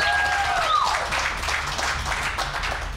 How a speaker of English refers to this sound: Yo, what you I- gotta you gotta clap harder than that. You just come on.